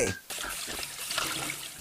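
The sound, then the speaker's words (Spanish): Water runs steadily from a kitchen tap after a child washes a plate, a continuous hissing splash, fairly loud, with a brief dip near the start and voices faintly present underneath. “Pero no desperdices agua. Cierra la llave, por favor.”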